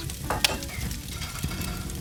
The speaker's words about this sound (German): Okay, Feuer brennt und die Pfanne ist heiß.